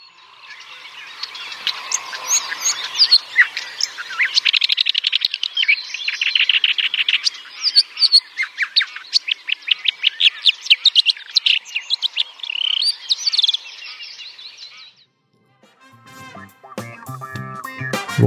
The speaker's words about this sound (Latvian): Un, un, un, un tālāk mēs varētu paklausīties, kā skan brūnā čakste.